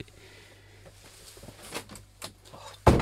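A door bangs open with a single loud, abrupt thud near the end, after a stretch of low mechanical hum and faint scattered clicks and rattles.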